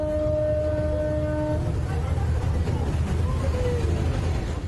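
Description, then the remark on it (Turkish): A passenger ferry off Kız Kulesi (Maiden's Tower) sounds its horn as it bears down on a Kadıköy–Ortaköy passenger boat: a steady, low, droning tone for almost two seconds over constant rumbling noise, then cuts off, leaving the rough background din running on. “Yolcu teknesine doğru siren çalarak gelen vapurun kaptanı son anda dümeni kırarak olası kazayı engelledi.”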